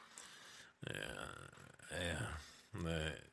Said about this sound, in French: Donc, euh, bon, et ça, c'est mon chat euh, qui, qui, est fou. Euh, il sent la femelle en chaleur et voilà.